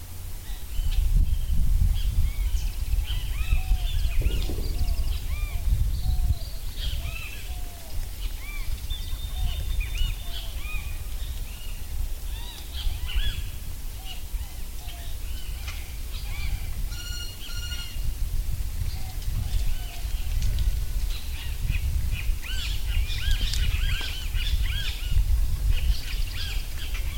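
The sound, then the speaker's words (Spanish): Outdoor recording of a river less polluted than the Suchiapa River, taken from a sound archive: a steady low rush of flowing water runs throughout, with many birds chirping and calling over it, including repeated short tweets and brief trills. “es un río que se encuentra menos contaminado que el río con el nombre Suchiapa”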